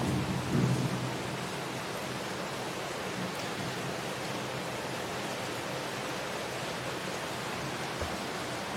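thunderstorm with heavy rain

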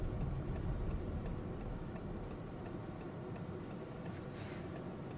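car interior

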